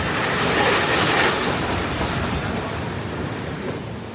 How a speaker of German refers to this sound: Einer der Sonderzüge vom Darmstädter Hauptbahnhof nach Darmstadt-Kranichstein, an dem an diesem langen Wochenende die Kranichsteiner Bahnwelttage stattfinden.